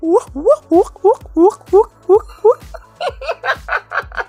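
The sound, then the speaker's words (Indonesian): A man's voice imitates a choking pigeon with a rapid string of about a dozen short, throaty gulping bursts in steady rhythm, loud, dissolving into laughter at the end. “Itu tadi suara burung merpati kalau keselak.”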